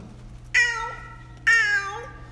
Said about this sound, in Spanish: Era una noche fría, cuando cerca de la ventana de Luis maullaba un gato.